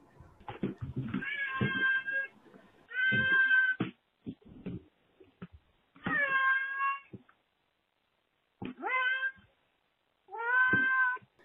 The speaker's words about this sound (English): So uh, the backstory on that is that's uh, somebody's cat. So they're, they're a huge fan of the podcast, apparently. They were just wanting to share their thoughts.